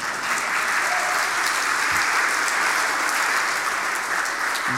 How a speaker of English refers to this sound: 100, so you can clap for that. That's good.